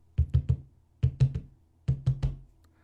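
Urgent knocking on a police officer's office door by a laboratory worker bringing test results: three quick bursts of three sharp, heavy knocks each, separated by brief pauses, with no voices.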